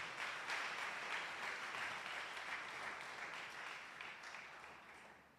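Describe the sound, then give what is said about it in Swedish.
Sustained applause from an audience at Citykyrkan church, given for three people, a dense wash of many hands clapping at steady volume that gradually tapers off toward the end, with no talking over it. “Kan vi ge dem en stor applåd?”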